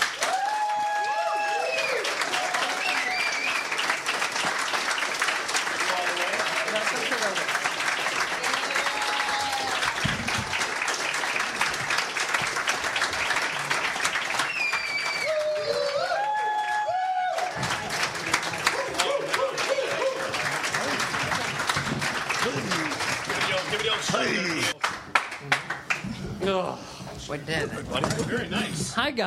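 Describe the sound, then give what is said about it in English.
Sustained, dense applause from a large audience welcoming the stars, creators and writers of Comedy Central's Key and Peele, steady and loud, with scattered whoops and cheers rising over the clapping and a brief swell near the end. “Ladies and gentlemen, please give a round of applause to the stars, creators, and writers of Comedy Central's Key and Peele.”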